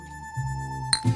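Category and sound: household object, glasses clinking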